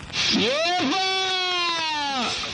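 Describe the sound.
A person imitates a raptor dinosaur roar: one loud, drawn-out wailing cry lasting about two seconds, with a brief dip in pitch before it holds steady and fades.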